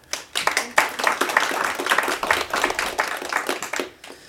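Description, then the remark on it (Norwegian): An audience at a course, not in a studio, applauds, many hands clapping in a dense, continuous patter that swells and holds steadily for several seconds before tapering off at the end. “Vi er faktisk på kurs, eh, og med et publikum som gjerne kan applaudere hvis de vil.”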